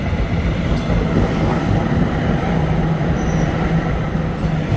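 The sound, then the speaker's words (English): A public transit tram rolls by with a steady, loud low rumble and rattle of wheels on rails, and a brief, faint high-pitched wheel squeal cuts in near the end. No voices. “Yeah, it's the uh, the public transit that I've recorded a fair amount of, and put, I think I put in there.”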